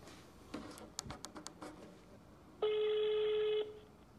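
A phone call being placed to see whether the person answers: a quick series of short dialing beeps, then a single steady ringback tone lasting about a second, clear.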